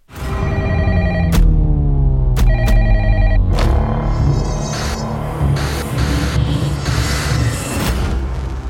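telephone ringing

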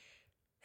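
sneeze

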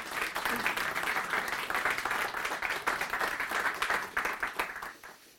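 applause

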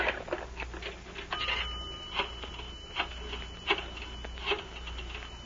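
telephone ringing

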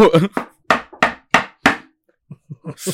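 knocking on wood

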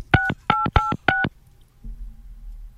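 telephone keypad dialing tones

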